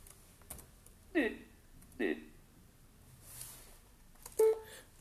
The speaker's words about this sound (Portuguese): Inserto barra de espaço até ouvir um bip e só depois é que posso pressionar a letra D.